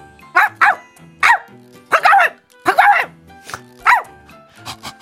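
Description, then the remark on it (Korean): A snow-white Jindo dog named Jindol-i barks repeatedly at a guesthouse by a valley in Gwangyang, South Korea, sharp yapping barks in uneven bursts of one or two, some stretching into short whiny yips, with a low background murmur. “펜션 옆방 가족이 눈처럼 뽀얀 강아지 한 마리를 데리고 온 겁니다.”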